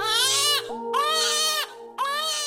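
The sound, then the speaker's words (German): A baby wails in three loud, drawn-out cries, each rising and falling in pitch with brief gasps between them, and no talking. “Eltern können sich oft nur noch an das süße, liebe kleine Baby erinnern, das sie mal hatten, und nicht mehr an den Schreihals von damals.”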